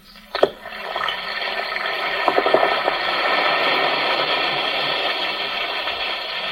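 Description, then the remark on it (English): An Alka-Seltzer antacid tablet plops into a glass of water, then a steady fizzing hiss with tiny crackling bubbles carries on for several seconds, with no voices. “Listen to it fizz.”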